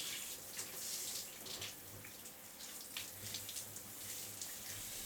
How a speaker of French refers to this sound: Passer quelques minutes de plus sous la douche, dans la chaleur.